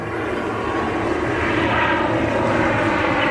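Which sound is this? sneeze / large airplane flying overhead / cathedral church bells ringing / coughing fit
large airplane flying overhead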